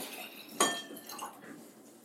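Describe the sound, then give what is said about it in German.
Water is poured into a glass: a sharp glassy clink followed by a short trickle of liquid, fairly quiet, with no talking. “Das dass du halt dir ein Wasser eingegossen hast.”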